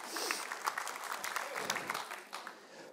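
audience round of applause

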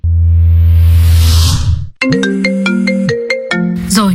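phone ringtone

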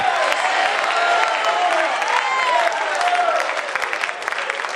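audience shouting and applauding

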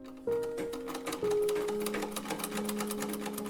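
sewing machine stitching fabric

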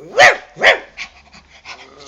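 dogs barking loudly

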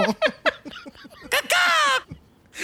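crows cawing

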